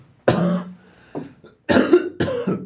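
Three harsh coughs from a person who is a bit ill burst out, the first alone and the last two in quick succession, each a loud rough explosion of breath with brief quiet gaps between.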